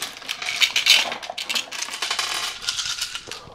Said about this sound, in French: C'est souvent un moyen de rajouter du hasard dans notre partie de jeu de rôle. On ne sait pas si notre personnage réussit à faire quelque chose, on prend les dés,